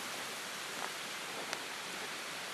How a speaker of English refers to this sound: Oh, oh, I'll tell you what I love about rain when you're out in the rain underneath the trees. I love the sound of the rain hitting the trees.